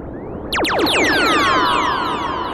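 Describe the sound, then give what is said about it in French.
A Matrix-12 synthesizer swells in with a cascade of bright, descending pitch sweeps that glide downward and overlap, sustaining loudly over a steady low drone with no voices. “C'est la partie basse là, non Donc ça, ça c'est le Matrix 12.”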